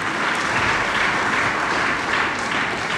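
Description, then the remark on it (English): A crowd claps steadily and warmly for a few seconds, a dense, even wash of many hands without a break, with no voices standing out. The people at a church service applaud the team who control the sound and light. “The unseen heroes of a service, let's give them a big hand, right?”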